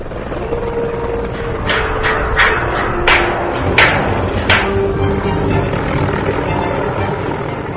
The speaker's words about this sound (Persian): بالگردهای پاسگاه های هوایی برای دیدبانی از ارتفاع و گشتزنی های هوایی بالگردهای ترابری جهت حمل اجسام سنگین وزن مثل هواپیما و دکلهای برق